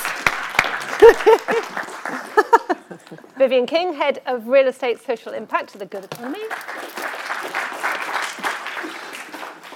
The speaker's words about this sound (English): Clapping is encouraged, yes.